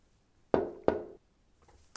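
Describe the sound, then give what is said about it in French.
Two heavy, resonant knocks on a door, close together and evenly spaced, each with a short booming decay, followed by quiet and a faint small tap near the end. “C'est quelqu'un qui frappe à la porte, non oui, on exprime également ce son ainsi.”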